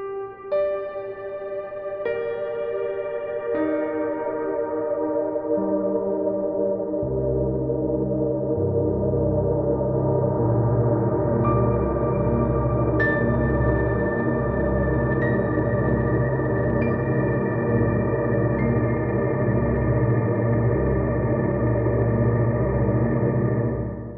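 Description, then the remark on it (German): A sustained, tonal synth-like drone with stacked harmonics that gradually shift downward and smear, run through a lightly modelled low-pass filter with a little resonance (Filterfreak plugin with Analog Style Crunch) and a plate reverb, with a long, washy reverb tail; steady and fairly loud, no talking. “Jetzt haben wir hier einen Low-Pass-Filter, was wirklich nur ganz leicht modelliert wird mit ein bisschen Resonanz.”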